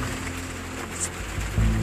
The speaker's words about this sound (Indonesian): Kali ini podcast Injak Cerita di malam yang sunyi, hujan